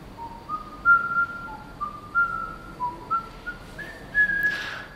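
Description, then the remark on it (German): A person whistles a slow, wandering melody of sustained notes stepping up and down in pitch, clear, with no talking, ending on a higher held tone. The whistling follows a performance instruction by the artist Sophia Durieux, published by the online culture magazine Frieda. “Das Gepfeifen, das ihr hier im Hintergrund hört, ist entstanden dank einer Performance-Anleitung von der Künstlerin Sophia Durieux, die im vergangenen Jahr vom Online-Kulturmagazin Frieda veröffentlicht worden ist.”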